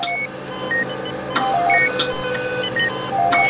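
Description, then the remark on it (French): Several electronic medical alarms in a hospital emergency room beep at once in overlapping tones of different pitches, forming a constant, busy chorus of bleeps over a steady hum, with sharp clicks in between. “C'est un concert d'alarmes permanent. Il y en a des centaines par jour.”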